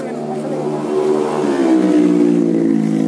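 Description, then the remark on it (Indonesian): A motorcycle engine revs loudly, its droning pitch climbing steadily after the first second and holding a strong, throaty whine to the end. “ini gandeng motor goblok”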